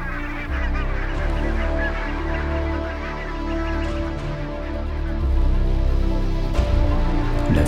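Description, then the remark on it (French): A large flock of about a hundred wild geese honks continuously, many overlapping calls forming a dense, clamorous chorus that stays loud throughout, swelling slightly toward the end. “Il était temps car aussitôt arrivèrent la centaine d'oies qui planèrent un instant en cherchant et reniflant un peu partout.”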